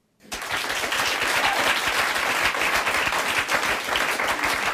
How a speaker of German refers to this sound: Ähm, ich genieße das sehr, dass man hier unendlich Applaus bekommt. Ja, das mache ich extra.